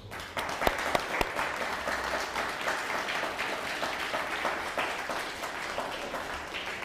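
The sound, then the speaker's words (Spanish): A crowd applauds steadily for several seconds, a dense wash of many hands clapping with a few sharper claps standing out near the start, sounding full. “Un fuerte aplauso.”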